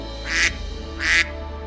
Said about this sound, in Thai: ดังนั้นวินนี่ก็ได้ร้องกาบกาบกาบด้วยความตื่นเต้น